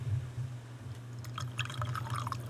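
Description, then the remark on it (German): Gin is poured into a glass, starting partway through as a bubbly trickle with small glugs and drips over a steady low background hum; no one speaks. “Ah, ich ich mag es ja, wenn so der Gin da rein und diese Schlieren.”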